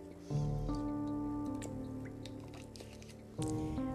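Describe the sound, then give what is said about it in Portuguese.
Wet sipping and swallowing noises with small clicks and drips as someone takes a little water on a very dry day in Brasília, over a steady low background hum. “Gente, olha, hoje aqui em Brasília tá muito seco, então eu vou estar tá várias vezes dando esses pigarrinhos, bebendo um pouquinho de água.”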